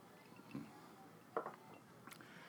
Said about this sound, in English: But here we go. Well, first a drink. Cheers, everybody.